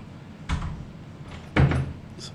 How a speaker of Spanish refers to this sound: La puerta.